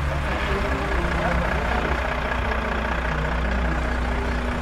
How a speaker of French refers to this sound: il y, en a, il a un camion de chantier qu'on voulait laisser passer, mais il s'est dit qu'il resterait avec nous euh, un, petit moment, donc c'est super.